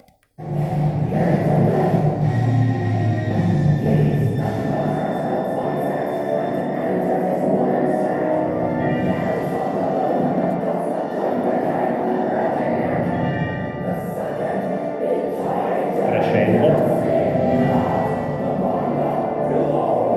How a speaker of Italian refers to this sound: E adesso vi faccio sentire quella che secondo me è uno degli esempi di screaming più tecnicamente difficile mai realizzato.